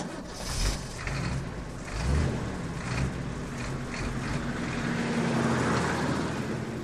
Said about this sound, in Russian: Грузовик увез то, что осталось от дома и сада.